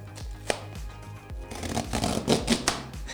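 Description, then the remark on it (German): A cardboard box's zip tear-strip on the outer packaging being pulled open: a few handling knocks, then a continuous, scratchy ripping sound that lasts over a second, moderately loud, with no talking. “jetzt mache ich nochmal die Box einmal auf, wie, wie, wie sie es anhört, weil wir haben einen richtig geilen, so einen Reißverschluss da unten.”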